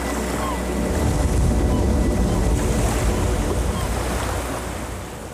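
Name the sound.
sea waves and surf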